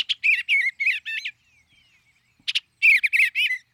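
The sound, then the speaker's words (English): A bluebird sings two short bursts of soft, warbling notes separated by a brief pause, clear with no other sounds around it. “Bluebirds catch insects on the wing and also enjoy berries.”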